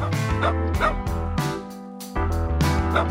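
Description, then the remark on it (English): A dog barks loudly, a rapid series of sharp, throaty barks and yips over about three seconds, with a brief pause midway before the barking resumes. “Are you afraid to walk your dog because he barks and fights with other dogs?”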